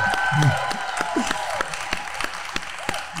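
An audience applauds for about three seconds, a dense, steady patter of many hands clapping with a few sharper claps standing out, and faint voices underneath.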